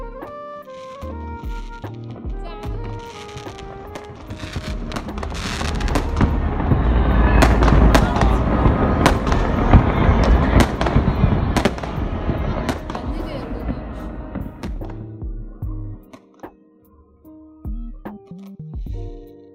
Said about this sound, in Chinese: 当时又冷又困，人很多，荷兰的风很大，我很想睡觉。烟花也跟电视里看到的差不多，但是现在想起来，那个时候实在是太梦幻了。